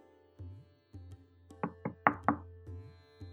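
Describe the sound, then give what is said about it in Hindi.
Four sharp knocks rap on a door in quick succession, loud, following a few softer thuds, with a low steady hum underneath and no one speaking. “ठहरिए दरवाजे पर दस्तक हुई है मेरा ख्याल है डाकिया है”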